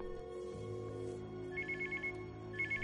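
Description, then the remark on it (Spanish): A mobile phone rings with an incoming call from a character calling from her home, a bright, high electronic ringtone in repeated pulsing bursts, sounding over a steady low musical drone with no one talking. “A la vez, Babi desde su casa llama al móvil de H.”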